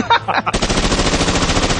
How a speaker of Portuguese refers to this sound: This is the machine gun